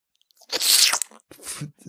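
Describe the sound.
A wet mouth noise made by a person biting into their own fist as a cry of joy: a loud hissing slurp lasting about half a second, then a softer, gurglier slurping sound after a short pause, with no talking.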